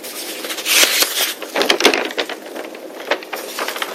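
Pages of a thick daily newspaper being turned back with a licked finger: crisp, papery rustling and crackling, with a louder flurry of flips early on, then lighter crinkles and rustles. No one speaks.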